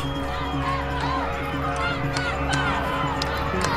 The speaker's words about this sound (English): And at that point, the Fennica started passing underneath the bridge, and the crowd from the shore was still yelling, Stop that ship.